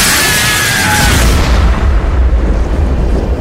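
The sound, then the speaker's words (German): A loud explosion bursts with a bright, crackling blast, then settles into a deep, sustained rumble that rolls on for several seconds. No voices are heard. “John, der Totengräber! Er ist regelrecht explodiert!”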